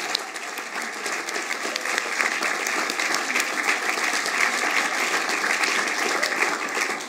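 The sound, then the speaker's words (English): Sustained audience applause, many hands clapping in a dense, steady patter that swells slightly after the first second and holds at an even, fairly loud level for about seven seconds, with no voices. “Let's give them a mighty, mighty round of applause as well.”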